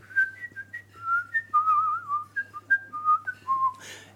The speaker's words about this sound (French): et très rapidement, on s'était mis à chantonner l'un comme l'autre. Et on s'est dit, mais tiens, et si on essayait le sifflement